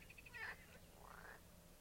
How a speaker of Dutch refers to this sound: Nou, de kikker weet het. Ik weet niet of je dit hoort op de achtergrond. Het is echt prachtig. Gewoon op dit moe. Heel vaak, s'avonds rond deze tijd, gaan alle kikkers eh, samen los. zo mooi.